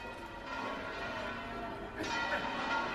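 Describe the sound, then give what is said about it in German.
Large bells ring from the Giralda, the bell tower of the cathedral in Seville, Spain, their long overlapping tones humming steadily, with a fresh strike about two-thirds through that swells the clang a little louder. No voices are heard. “Eine der bekanntesten Sehenswürdigkeiten ist die riesige Kathedrale mit dem Glockenturm, der Giralda.”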